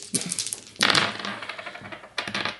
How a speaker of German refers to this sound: Ja, gut, also dann nehme ich jetzt die drei Würfel.